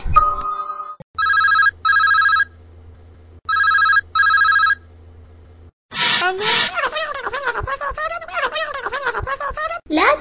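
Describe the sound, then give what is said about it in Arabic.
A mobile phone rings in two quick double-pulsed bursts with a short pause between, then the ringing stops and a person begins talking, during a mourning gathering (ma'tam). “تتكلم بالهاتف في المأتم بل اغلق الهاتف عند دخولك للمأتم”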